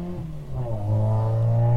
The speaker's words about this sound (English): My mother-in-law can fart louder than that. You heard it. Someone with a very poor engine just went past accelerating.